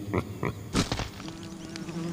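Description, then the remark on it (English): A large wasp in Kabinsky's playground buzzes, starting with a few short, choppy bursts before settling into a steady, low droning hum that holds to the end. “Big castle, big dogs, big wasps.”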